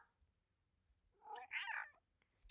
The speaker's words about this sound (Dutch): Sorry, mijn kat wil ook heel graag meedoen met de podcast vandaag. Ze snapt het niet als ik tegen mijn telefoon praat. Hoe schattig is dit?